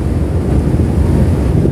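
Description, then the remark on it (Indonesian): Steady wind buffeting the microphone over a continuous rumble of waves and open water in the middle of the sea on the way to Bakauheni, under overcast weather, loud throughout with no pauses and no voices. “gue nih udah lagi arah ke Bakahuni gue lagi di tengah laut”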